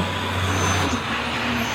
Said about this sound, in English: Not too long after, more cars are coming, but they don't say yes, they say wish, wish, wish. That's what I hear when I listen to the cars driving on the wet pavement now. Wish.